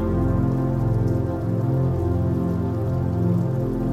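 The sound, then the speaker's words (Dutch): Steady rain patters against a window on a cold winter night, heard while lying in bed, a dense, continuous tapping with a low rumbling undertone, no voices, holding an even loudness throughout. “En terwijl je hier comfortabel in je bed ligt, word jij je bewust van het geluid van regen tikkend tegen je raam.”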